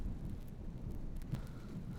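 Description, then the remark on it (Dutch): Strong wind roars and buffets the microphone in a continuous low, rumbling gust that stays loud throughout, with no voices present. “Waait echt heel hard.”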